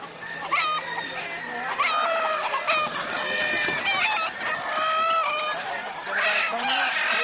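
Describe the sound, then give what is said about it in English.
A flock of standard Old English game chickens, a breed bred for show and related to pit games, clucks steadily and busily, with a rooster's crow rising among the overlapping calls, fairly loud throughout. “these are standard Old English game, eh, which is related to most of the pit games, what they use for cockfighting.”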